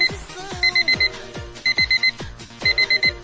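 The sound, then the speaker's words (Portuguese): A cheap pink alarm clock, bought at a stall in Lapa, rings in three bursts of rapid electronic beeps, each burst four quick pulses, loud over a busy background of music or clatter. “Pegando o nosso despertador de 1,99.”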